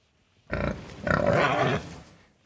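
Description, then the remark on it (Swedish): A person imitates a pig's oinking as the sound of the Södersunda team in a quiz: a short nasal grunt, then a longer, louder squealing oink, with nothing else in the background. “Ni är en, eh, ni är en gris.”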